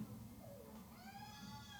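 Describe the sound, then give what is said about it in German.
A faint, drawn-out wail of a crying baby rises and wavers in the background over a steady low rumble, with no one speaking. “Und ihr hört im Hintergrund, wir sind mitten am wenigen Platz, wo entweder Kinder Baby. oder Babys schreien.”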